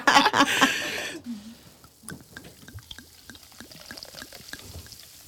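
Sips tonic is poured into a glass in a loud, gushing burst for about a second, followed by a steady crackle of fizzing bubbles popping and settling.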